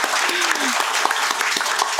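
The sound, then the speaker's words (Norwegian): A burst of audience applause for the small hospital in Vestfold's results in large studies: dense, steady clapping from many hands with a few sharper individual claps standing out, holding at a fairly loud level throughout, with no talking over it. “Og dere har, altså lille sykehuset i Vestfold, ikke et universitetssykehus engang, har levert best i verden globalt i disse store studiene på altså 20 000 fortjener nesten applaus, eh, det i seg selv.”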